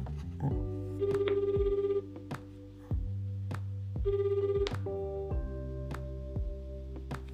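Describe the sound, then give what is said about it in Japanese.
A phone rings with a bright, melodic ringtone for an incoming call, its short electronic tune repeating several times at a steady pace, loud, with no one talking over it. “ああ、ちょっと電話、電話切れてるわ。あ、なんだえー、これかうん、これだ。あ、来た来た来た。”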